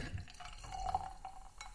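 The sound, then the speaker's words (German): Tonic water pours steadily into a glass that already holds ice, a bright ringing tone rising as it fills, with soft fizzing and a few small clinks of ice, fairly quiet. “Oh, ich mag ja dieses Geräusch, wenn, wenn im Glas schon Eis drin ist.”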